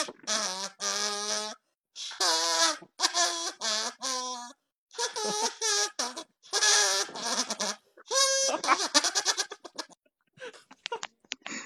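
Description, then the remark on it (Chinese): A buzzy, nasal kazoo imitates bird calls in a string of short warbling phrases that rise and fall in pitch, separated by brief pauses and ending in rapid, fluttering chirps, played by a contestant in a competition. “你你跟树上的鸟这一唱一和，那感觉是。”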